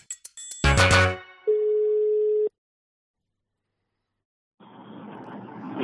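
A few clicks and a brief harsh burst lead into a single steady telephone ringing tone lasting about a second, then silence before a hissy open line picks up.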